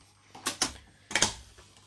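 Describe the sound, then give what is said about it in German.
Scissors snip through computer cables (LAN, mouse and keyboard cables) in two quick bursts, each a pair of sharp, crunchy clicks, fairly quiet, with nothing else around them. “nimm bitte diese Schere hier, die ich mitgebracht habe, und durchtrenne die DF, äh, DF-Dinger”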